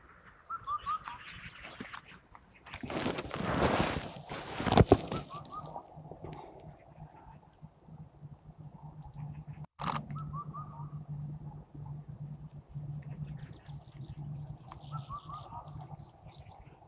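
Several birds call over a steady low hum at Shahe, on the north bank, during birdwatching: short, hoarse mid-pitched calls early on, a burst of rushing noise, then a quick series of high, bright repeated notes toward the end.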